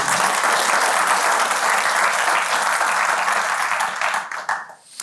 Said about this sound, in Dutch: Dames en heren, mag ik een warm applaus